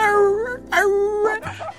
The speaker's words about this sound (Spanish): con todo tipo de perros, grandes y chicos, gordos y flacos, algunos escondidos en un rincón, pero la mayoría ¡au! ¡au! aullando y brincando contra la malla de la jaula, mientras pasábamos como tratando de decir a mí, a mí, escógeme a mí,